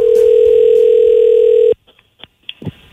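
A telephone call ringing out, a call to a customer about an RV rental: one steady, loud, mid-pitched ring tone holds for under two seconds, then cuts off abruptly, leaving a few faint clicks and line noise.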